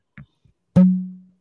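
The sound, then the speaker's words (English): A couple of faint scuffs lead into a single sharp pop as a cork is pulled from a bottle of Templeton whiskey from Iowa, followed by a short hollow resonant ring that fades away. No one speaks. “Well, uh, I'm gonna ask you if you can guess the sound of this cork here,”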